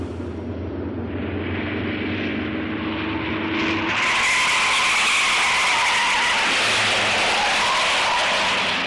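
A black car's engine revs hard with rising pitch, then bursts into a loud, harsh roar with a hissing, screeching edge as the car races away at full speed; no one speaks.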